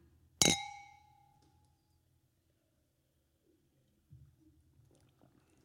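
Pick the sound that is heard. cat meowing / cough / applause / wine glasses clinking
wine glasses clinking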